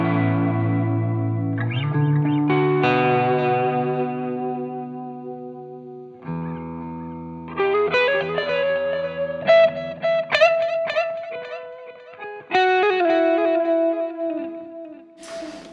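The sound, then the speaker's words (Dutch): A 1967 electric guitar with a Bigsby vibrato rings out in sustained chords and melodic lines, notes wavering and bending under heavy chorus and echo effects, played alone without any talking. “Dat is een, een met een Bixby is echt ongeëvenaard.”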